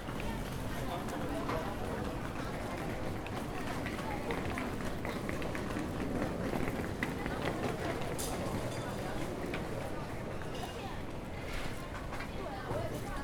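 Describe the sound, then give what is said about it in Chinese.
Many overlapping footsteps from a crowd of people pulling suitcases and carrying bags in a train station, a dense, steady patter of quick steps over a constant wash of murmuring voices. “然后每个人从他走路的速度来判断说他的心情到底如何，然后他的情绪到底如何，然后甚至于脚步声等等，我都会开始去想象他们背后的故事。”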